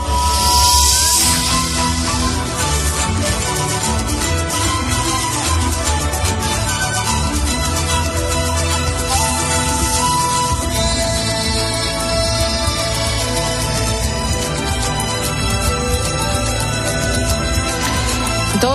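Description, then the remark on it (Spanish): Full, sustained orchestral music recorded with an orchestra plays steadily throughout, with rich layered tones and a constant loud level; no one speaks over it. “que es el nombre también del disco que grabó con la … y que suena así.”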